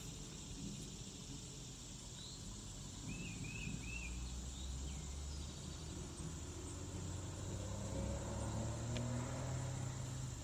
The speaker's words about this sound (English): Look at this beautiful day today. I want you to hear the birds. Listen.